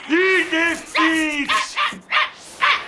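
A dog barks repeatedly, about seven loud, tonal barks in quick, slightly uneven succession, some drawn out into short howling yelps.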